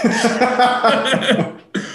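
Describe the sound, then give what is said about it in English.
Loud coughing in a rapid run of rough, voiced bursts that blur together, a brief pause, then one more cough. “I need to read that over my, my coughing.”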